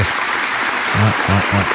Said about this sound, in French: Euh, fais-moi un beau bruit d'applaudissement.